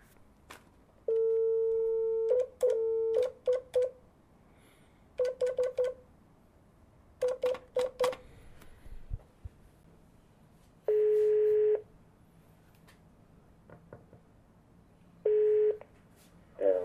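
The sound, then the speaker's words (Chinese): A run of short, steady telephone keypad beeps in quick clusters as a phone call is dialed to a Vans China Team professional skateboarder, then a ringback tone: a longer, clear humming tone that repeats after a pause. No voices. “那么现在我们将会通过电话来连线 Vans China Team 的职业滑手”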